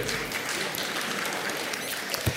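An audience applauds steadily, a dense wash of many hands clapping at once with no clear individual beats, holding an even level throughout.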